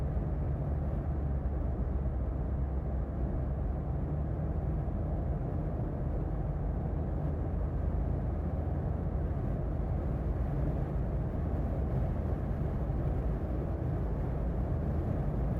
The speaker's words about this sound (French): Je vous laisse avec une minute de son de voiture.